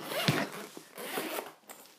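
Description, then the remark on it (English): A zipper is pulled open on a violin case in a few rasping, uneven strokes, with a sharper tug near the start, to get the violin out for polishing. The scratchy zipping is fairly quiet and no one is talking. “I'm gonna open my violin so I can do some, so I can polish it while I'm talking to y'all.”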